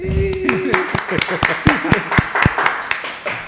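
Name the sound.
round of applause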